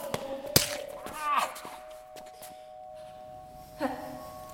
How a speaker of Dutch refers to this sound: Soldaten proberen de boer op te pakken, maar hij verzet zich. Een worsteling volgt.